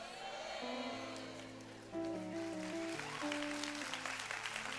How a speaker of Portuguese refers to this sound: Só as mulheres aplaudindo.